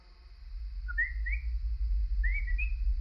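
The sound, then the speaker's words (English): Two brief bursts of high, bird-like chirping whistles, each a quick pair of rising tweets, heard at night through a closed bedroom door, stand out clearly over a steady low rumble in the background. “It wasn't a squeak as I'd first thought, it was more like a chirp.”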